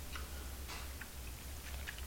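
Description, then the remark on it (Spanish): A short, soft slurp of someone taking a first sip of coffee, followed by a few faint mouth clicks and small swallowing sounds over a steady low room hum. No one speaks. “Después de este primer buchito”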